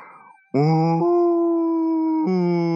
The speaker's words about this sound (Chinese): 他们来到了人住的村子，大象先叫，他慢慢的扬起了大鼻子，憋足了劲儿，